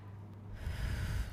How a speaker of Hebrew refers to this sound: אמ, אז אני לוקחת נשימה עמוקה.